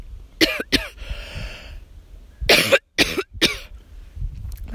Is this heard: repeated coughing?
yes